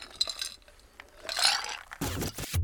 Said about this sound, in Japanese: すみません乾杯乾杯よろしくお願いします